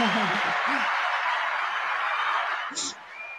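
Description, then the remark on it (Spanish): An audience applauds to welcome two guests, a dense, steady wash of clapping that tapers slightly near the end, with a few brief voices and a chuckle rising over it at the start and again toward the close. “hoy tengo dos grandes invitadas que quiero recibir con un grande aplauso.”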